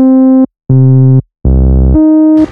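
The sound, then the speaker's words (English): A synthesizer keyboard plays four loud, held notes at different pitches, each perfectly steady with no wobble or vibrato because the LFO is not yet connected to anything, separated by brief gaps and ending in a short burst of hiss. “If we now play our keyboard, we don't hear any difference to our sound.”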